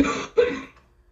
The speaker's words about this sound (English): Um, that sounds like a productive cough. You should not swallow that stuff down. You need to be spitting it out into a cup.